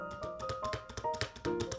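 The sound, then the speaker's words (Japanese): Rapid, uneven clatter of keys being struck on a computer keyboard, fairly loud and picked up by a microphone, a dozen or so quick clicks in under two seconds with no one speaking. “その、音を拾いまくるんで、話してる時の私の声以外の、例えばこういう、なんだ、キーボードを叩く”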